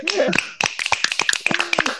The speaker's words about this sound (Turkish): Dürüst, dürüstlüğün için yok mu bir alkış da dürüstlüğü için?